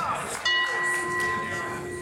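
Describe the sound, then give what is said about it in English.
A gong is struck once and rings out with a sustained, shimmering metallic tone that lingers and slowly fades, with faint murmur in the background. “Judy should get a gong for that, don't you think?”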